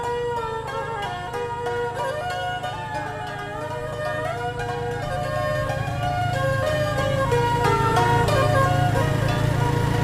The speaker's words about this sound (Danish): Midt i Kambodjas hovedstad Phnom Penh ligger et gammelt gymnasium omkranset af en høj mur. Trafikken udenfor passerer larmende forbi, og gadehandlen foregår også livligt udenfor.